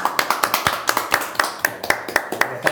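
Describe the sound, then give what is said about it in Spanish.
Applause welcoming a guest swimmer, hands clapping together in a steady, even rhythm, roughly a dozen sharp crisp claps, fairly loud, with faint voices murmuring underneath. “Fuerte aplauso”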